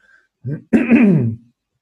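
Someone clears their throat during an interview: a short guttural rasp followed by a louder, longer rumbling clearing that trails off into silence, with no one talking.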